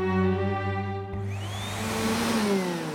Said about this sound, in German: Auf der Gang mit dem Staubsauger.